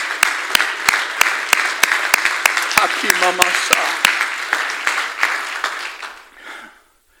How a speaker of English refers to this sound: Oh, clap your hands.